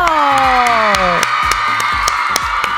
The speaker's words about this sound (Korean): 오늘의 이은지의 가요광장 99일째 바로 내일 이은지의 가요광장이 100일을 맞이합니다. 박수 주세요.